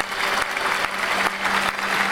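Steady applause from a crowd fills the whole moment, dense overlapping claps at a fairly loud, even level with no voices over it.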